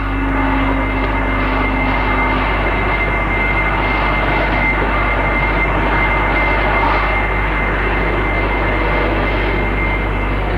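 Airplane engines run steadily, a loud continuous droning roar with a low rumble and a faint whine, unbroken for the whole stretch and with no voices.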